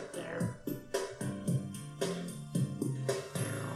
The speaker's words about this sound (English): So here's the credit theme. This is what happens when you win the game.